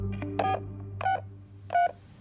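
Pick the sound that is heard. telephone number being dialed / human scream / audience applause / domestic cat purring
telephone number being dialed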